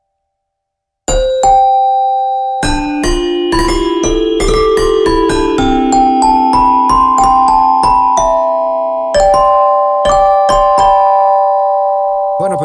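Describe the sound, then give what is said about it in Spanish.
An electronic keyboard plays a run of bright, bell-like notes in the key of C that ring and overlap into sustained chords, fairly loud, with brief pauses between phrases and no talking. “Yo estoy tocando aquí en do, pero yo no quiero tocar en do.”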